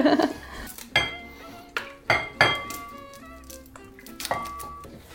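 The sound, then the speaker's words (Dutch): Marinade being mixed in a bowl, with a utensil striking the sides in about six irregular, ringing clinks and scrapes, with no talking. “Ik mag alles mengen in deze kom? Ja, doe dat dan, Dan kunnen we er straks de kip bij doen.”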